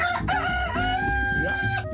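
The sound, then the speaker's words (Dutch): A rooster crows loudly, one long, strained cock-a-doodle-doo filling the whole moment with a harsh, wavering pitch. “Ik heb hem maar één keer, want hij zou drie keer kraaien, maar dat, ik had hem dat maar één keer.”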